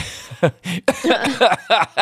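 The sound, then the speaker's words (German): A person coughs and splutters after choking on something, in a series of short bursts, the harsh coughs blending with breathy, laugh-like vocal sounds over about two seconds. “Jetzt habe ich mich noch oh verschluckt.”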